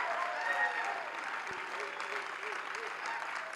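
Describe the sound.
Steady, dense applause from a large audience at a church gathering welcoming a visiting preacher, a continuous wash of clapping held at an even level throughout, with faint voices mixed underneath.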